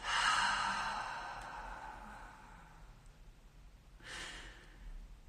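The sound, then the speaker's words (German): A long, deep breath pushed out through the mouth after holding the breath during a breathing exercise, loud, fading over about three seconds, followed by a shorter, softer breath near the end. No one speaks. “Wir halten den Atem und dann atmen wir durch den Mund wieder aus.”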